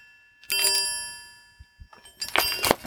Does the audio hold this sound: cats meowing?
no